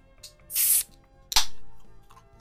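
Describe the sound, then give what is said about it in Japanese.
A can of shochu-based drink is cracked open: a breathy burst of hiss, then a sharp metallic snap followed by a fading fizz. No one speaks. “準備はいいでしょうか私先に開けちゃいますね、プシュッと。”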